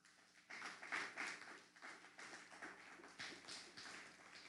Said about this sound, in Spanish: Denle un fuerte aplauso al Eterno.